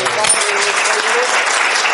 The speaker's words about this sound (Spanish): Nada, no hay nada que disculpar, solamente agradecer, por favor, un gran aplauso para que